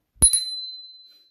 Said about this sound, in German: Es ist halt ziemlich laut. Ja. Es ist meine Fahr Also wisst ihr ja schon, dass mein Fahrrad klingelt. Wenn man die weiter weglässt, ist immer noch ganz schön laut.